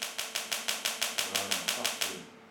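A medical shockwave therapy device, applied by a doctor to an inflamed plaque on the penis to repair damaged cells, fires rapid, evenly spaced sharp pulses, about a dozen in a steady mechanical rhythm, moderately loud, with no voices, before stopping abruptly.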